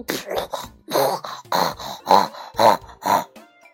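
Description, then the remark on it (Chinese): A storyteller imitates a pig grunting, voicing the old wolf pretending to be a pig: about seven throaty, nasal bursts in a steady run, roughly two per second, fairly loud, with no other talking. “我我是一只猪。哦，真的吗？那你会”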